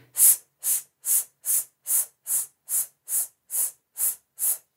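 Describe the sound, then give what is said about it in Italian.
A voice makes a series of short, sharp hissed S sounds as an intermittent breath-support exercise for singing, about eleven evenly spaced bursts in a steady rhythm, each high and breathy with brief silences between. “La S sibilata lunga e poi eh, quella intermittente, quindi”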